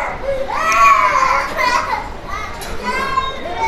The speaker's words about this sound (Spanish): Hay un niño llorando. Ok. No sé si lo escuches.